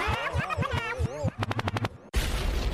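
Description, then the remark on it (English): A rapid burst of about seven sharp, loud gunshots follows warbling, sweeping tones and gives way to a harsh rushing blast of noise. No one speaks. “Record means rewind, a gunshot means forward.”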